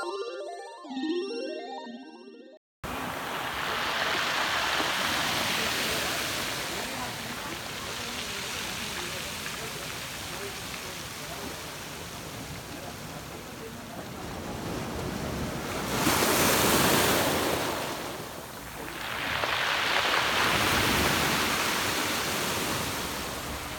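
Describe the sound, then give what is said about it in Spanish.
Ocean waves wash steadily onto the shore in a continuous broad roar, with two louder surges cresting partway through. A brief musical chime sounds before the surf begins. “Esta historia va a ser desde cerca del mar.”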